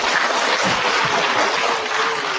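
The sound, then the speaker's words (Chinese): Audience applause for a director in charge at Guangzhou Library who is present, a dense, steady wash of many hands clapping at an even loudness, with no voices on top. “那对对，我们给点掌声给他好不好？”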